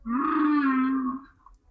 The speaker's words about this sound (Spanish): Así que mm, escuchemos el canto de la Yubarta eh, dentro audio, por favor.